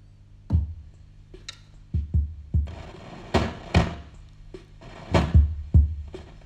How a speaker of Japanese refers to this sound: これはですねあのもうでっかいんですよあのドンカマって言われてる、あの名称あるんですけどねリズムボックスって別名これがもうね何だろうね郵便ポストまではいかないんですけども結構大きいんですよ。でじゃあお聞かせしましょう。まず基本パターンですね。